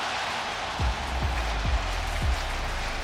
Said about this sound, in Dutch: Terecht applaus van Pascal Jansen voor deze wonderschone treffer van Ruben van Bommel.